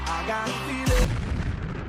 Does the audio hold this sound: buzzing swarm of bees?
no